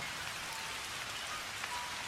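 Steady rain patters on a surface at a small, peaceful temple in Japan, a dense, even hiss of countless drops with faint brighter ticks, continuous and moderately quiet, with no voices.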